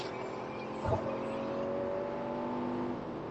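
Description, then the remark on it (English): A car engine steadily revs up over constant road and wind noise, heard from inside the vehicle, as a new, fast car accelerates to pass another car on the highway, with a brief low thump near the start and no talking. “I'm gonna pass this car.”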